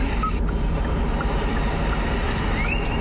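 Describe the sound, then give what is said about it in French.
A tropical forest ambience played as a relaxing nature sound from a car's built-in sound library: a steady, dense wash of noise over a low rumble, with a few faint bird chirps and a rising whistle-like call near the end. No one speaks. “comme celui-là, façon d'être dans une forêt tropicale.”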